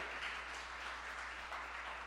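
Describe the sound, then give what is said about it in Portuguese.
An audience applauds the Lord in a steady, dense patter of many hands clapping at once, fairly soft and even throughout, with no voices over it. “Então, aplauda o Senhor de verdade, está muito quieto.”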